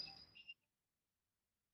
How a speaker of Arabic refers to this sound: عدا عن أنه رن آه، تليفونك طبعا صراحة هاي مسج